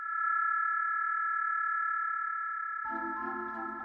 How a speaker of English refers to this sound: that was found at a Macy's department store nearby. The provider responsible for the ultrasonic beacon is Shopkick. They're exclusively in retail stores.